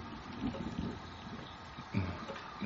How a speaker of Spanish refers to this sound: Sí, no hay duda. Se escucha el agua correr.